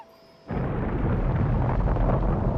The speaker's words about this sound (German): Jacob sprang ins Wasser.